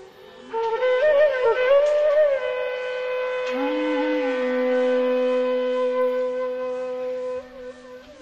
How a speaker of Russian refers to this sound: Звуки всех этих раковин слились в сплошной рев, сотрясая небо и землю, и сердца сыновей Тхритараштры содрогнулись.